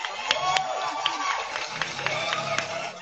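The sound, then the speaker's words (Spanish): A burst of applause for the producer, with scattered sharp claps over a dense, noisy crowd bed, lasting about three seconds at steady moderate loudness, with faint voices mixed in. “La productora lleva aplauso, la productora, vamos.”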